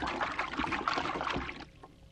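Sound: water trickling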